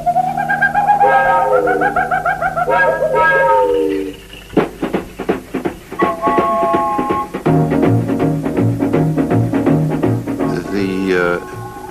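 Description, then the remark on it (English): Loud, warbling bird calls and whoops ring out over lush, tropical-sounding exotica instrumental music with steady percussion, the calls gliding up and down repeatedly and then giving way to the rhythmic band. “These bird sounds and monkey chattering, uh, the sound of rumbling volcanoes and surf crashing really put everything together into a almost psychedelic experience.”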